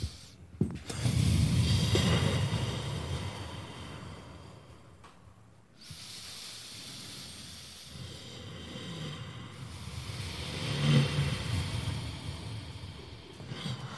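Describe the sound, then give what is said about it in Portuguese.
Two long, slow ujjayi breaths with a throaty, hissing rasp as air passes over the soft palate, each swelling and fading like ocean surf. Fairly loud, with an echoing wash from added delay and reverb effects and no talking. “Tô parecendo um mar mesmo, pesadão. É, respiração indiai que chama isso aqui.”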